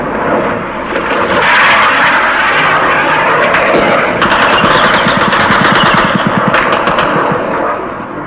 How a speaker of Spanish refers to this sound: Ahora el tiroteo es mucho más intenso y se ve que además otro de los blancos es el mercante argentino que está en la bahía. Contestan nuestras baterías antiaéreas y se ve el refulgir de sus disparos en el aire. Un ruido que ahora se hace más intenso.